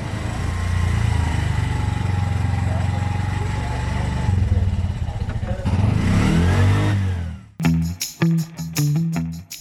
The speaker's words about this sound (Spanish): este es el sonido de una motorratón, transporte público muy conocido en el municipio.